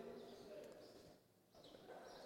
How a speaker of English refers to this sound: And the birds are with us. We're trying to figure out how to shut these, uh, these other windows, but anyway, maybe if some of you have an idea about how to deal with high windows, you can look at that at the end because the birds are here.